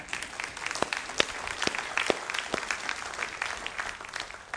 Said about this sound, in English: Yeah, yeah, clap for that.